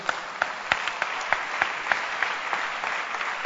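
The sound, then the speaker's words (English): An audience claps steadily for a successful leader, with sharp individual hand claps standing out from a dense, continuous patter of applause that holds at an even level throughout. “Clap for this successful leader.”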